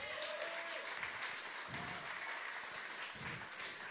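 A crowd applauds steadily, a dense, even patter of many hands clapping at full volume throughout, with a faint tone and murmur briefly audible beneath it.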